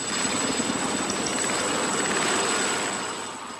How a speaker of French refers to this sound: Donc là, on prépare vite le matos. Il y a l'hélico qui nous récupère. On va se faire treuiller dans la voie et puis on, verra ce qu'on fait sur place.